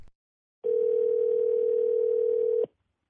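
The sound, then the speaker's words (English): A telephone dial tone at the start of a prank call to Jim Bakker's pancake company: one steady, unbroken mid-pitched hum that holds at an even loudness for about two seconds, then cuts off abruptly, with silence on either side and no voices. “So hold tight for this prank call.”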